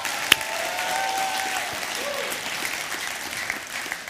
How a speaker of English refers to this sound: Uh, why don't you put your hands together one more time loud enough so they can hear you in the back?